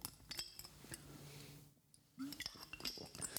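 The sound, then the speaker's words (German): Someone sips water from a glass: scattered light clinks and taps of glass, a short hush, then more soft clinks and handling noises, with no talking. “Ich nehme gleich noch einen Schluck Wasser.”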